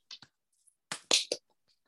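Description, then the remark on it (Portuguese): A few weak, uneven hand claps, two light ones followed after a pause by three slightly louder, scattered claps, with no voices. “palmas mais fail de sempre.”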